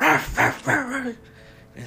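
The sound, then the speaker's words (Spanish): A dog barks loudly, three or four quick, harsh barks in a burst, then a short pause with a faint trailing yelp at the end. “Eh, o sea, empieza a ladrar muy fuerte.”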